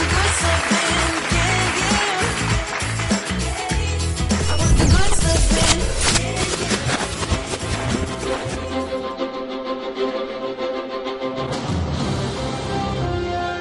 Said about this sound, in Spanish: Uy, se me olvidaban. Bueno, pues otro aplauso para todos los enfermeros.